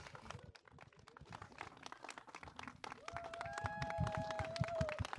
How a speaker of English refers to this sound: A big applause to him.